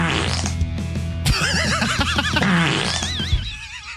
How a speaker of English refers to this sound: This is this just says fart sounds one hour. One hour of fart sounds.